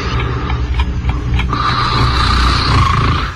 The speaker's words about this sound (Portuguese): Eu ficava tão traumatizado, porque eu, eu acordava com isso. Eu ouvia assim a, um som de ronco, o cara roncando, tal, de repente a mulher, acorda!